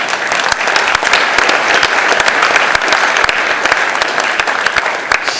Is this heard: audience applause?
yes